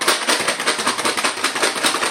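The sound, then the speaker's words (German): Generic rustling of a board game: a steady, busy stream of dry clicks, clacks and shuffles, like pieces and cards being handled, with no voices. “Das war jetzt ein generisches Rascheln von irgendeinem Spiel.”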